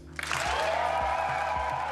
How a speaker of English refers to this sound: So, yes, Timmermans got the biggest applause